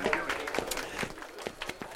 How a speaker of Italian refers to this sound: Chi è che applaude? Ah, tu? Ah, grazie, grazie, grazie, grazie.